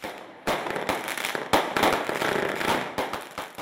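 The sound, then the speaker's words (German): Fireworks set off during a safety test at Germany's Bundesanstalt für Materialforschung (BAM) go off in a rapid, crackling series of sharp bangs, with a few louder bursts standing out over a dense hiss of smaller pops, continuing without pause. “Sicherheitstests von Feuerwerkskörpern gehören zu den bekanntesten Aufgaben der Bundesanstalt für Materialforschung, kurz BAM.”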